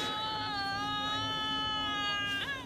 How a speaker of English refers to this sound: But then the way that that then gets wrapped up when she phones him back, when she realizes what's happened, and that howl.